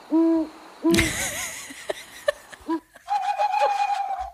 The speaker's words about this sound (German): Das war die ESO-Eule. Die, die App heißt Owl Sounds, also Eulengeräusche.